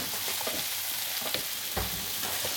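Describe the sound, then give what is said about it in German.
Vegetables sizzle steadily in a hot pan, a constant crackling hiss with occasional scrapes and clacks of a utensil stirring them, fairly loud, with no talking. “Ja, das ist ein bisschen wie Malen mit Gemüse in der Pfanne.”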